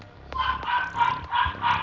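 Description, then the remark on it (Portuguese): Dogs bark in a quick run of four or five loud, ringing barks, one after another with no one talking. “E meus cachorros hoje vai, vai longe.”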